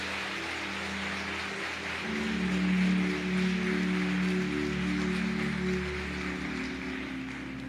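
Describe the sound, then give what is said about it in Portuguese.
A crowd applauds Jesus at a preacher's call during a sermon, a steady dense wash of clapping for several seconds that swells slightly midway, with a sustained keyboard chord humming underneath. “Se você está entendendo isso, aplaude a Jesus.”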